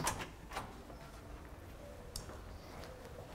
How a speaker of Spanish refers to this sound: Déjese, es que uno que cierra la puerta, la puerta,